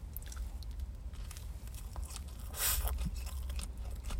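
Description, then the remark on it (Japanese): Moist chewing of a three-layer sandwich with corn, potato and mayonnaise filling, with soft irregular crunches and squishy bites continuing steadily for several seconds and no talking. “じゃあ、それでは、えー、咀嚼音がしますけど、えー、まずはツナ、ツナかなこれ。”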